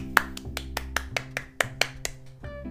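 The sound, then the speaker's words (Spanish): A quick run of about ten sharp hand claps in a loose, steady rhythm, crisp, over a quiet sustained music bed, applauding the end of a story. “Un aplauso.”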